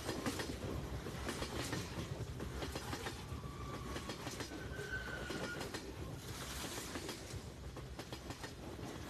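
A train rolls steadily along the rails, a constant low rumble with rhythmic clickety-clack of the wheels and a couple of brief, thin metallic squeals midway. No one speaks.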